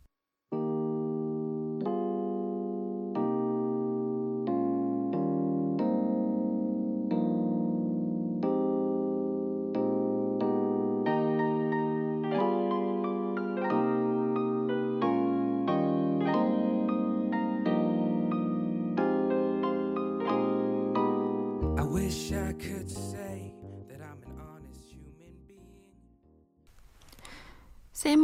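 A song plays on the radio at a steady, fairly loud level, its melody carried by sustained tonal notes, before breaking into a brief stretch of noisier, choppier sound near the end.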